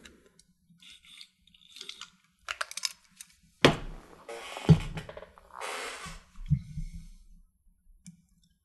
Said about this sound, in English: I'm just going to have a little brief drink of water before I continue here.